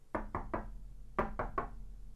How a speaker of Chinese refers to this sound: 哎。大概总会让我在这里过夜吧。小克劳斯想着，走了过去，敲了敲门。